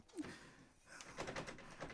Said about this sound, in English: Okay, I'm just going to. I'm Just going to go to the door now, and we're just going to see what's going on. And uh, okay, here I go. Here I go. Okay. Okay, just gonna open that door now.